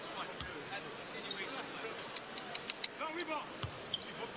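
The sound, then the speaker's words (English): A basketball bounces on a hard court in a quick run of four or five dribbles before a free throw in a professional game between Toronto and the Kings in the third quarter, with a few scattered thumps around them, over a low murmur of crowd and voices. “Free throw, first one down for Fox.”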